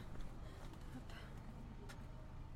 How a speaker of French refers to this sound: Hop, ça y est. Je monte dans la voiture.